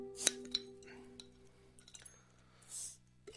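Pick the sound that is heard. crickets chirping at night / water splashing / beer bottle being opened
beer bottle being opened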